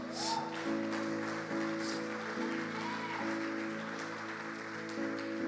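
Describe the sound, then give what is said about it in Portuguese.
Steady audience applause, a dense crackle of clapping that lasts several seconds, with sustained keyboard chords playing underneath and shifting pitch every second or so. “E eu quero profetizar: você foi levantado por Deus para ser bênção, e isso merece um aplauso.”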